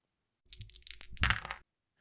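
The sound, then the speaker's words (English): Four dice rattle briefly in a cup or hand as they are shaken and rolled for the first roll of a role-playing game, a quick burst of clicking and clattering about a second long, fairly loud, then silence. “So, okay, I'll do the first roll here. Shaky of the dice.”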